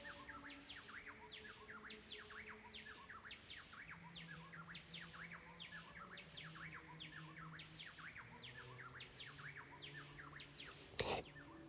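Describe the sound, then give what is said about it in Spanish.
Birds sing continuously, with many repeated chirps and whistles overlapping in a dense chorus, fairly quiet and steady throughout, joined near the end by a brief sharp click or rustle. “como que yo hubiera apagado el, apagado el canto de los pájaros para hablar.”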